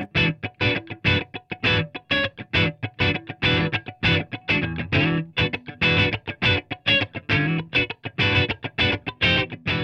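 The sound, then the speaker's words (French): Choppy funk rhythm chords on an electric guitar, played alone as rapid, tight stabs in a steady syncopated groove, fairly loud with a slightly gritty tone, a basic funk rhythm pattern. “Et donc ça, c'est vraiment la, base rythmique funk, surtout chez ….”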